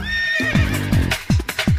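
A horse whinnies with a high, wavering cry, then several sharp hoofbeats clop in a quick uneven rhythm, fairly loud, with no voices.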